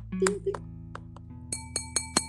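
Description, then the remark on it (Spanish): A metal key just found on a table clinks several times against a hard surface, bright ringing taps, first irregular, then four evenly spaced strikes near the end, over a faint low hum. “Te entrego virtualmente una llave que acabo de encontrar aquí en la mesa, hago un sonido”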